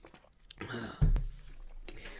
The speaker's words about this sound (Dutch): En voordat ik dat doe, moet ik even een slokje water drinken, want anders komt het niet goed.